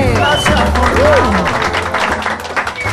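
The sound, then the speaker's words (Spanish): An audience breaks into loud, steady applause, a dense crackle of many hands clapping for about three seconds, with some voices and vocal calls riding over the noise. “Un aplauso fuerte.”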